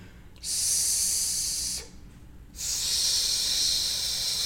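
Two sustained hissing 'sss' exhalations, a person breathing out through the teeth making an S sound as a breathing and voice exercise, the first about a second and a half, the second longer, separated by a brief quiet pause.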